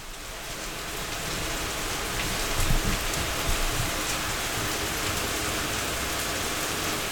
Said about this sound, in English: That is indeed the sound of rain pouring outside my window right now. Let me turn the gain up and see if you can hear it.